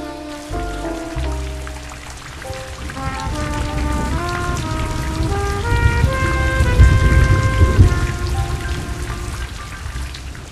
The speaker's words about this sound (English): There was enough rain in this city to drown the crooked rats that run this place.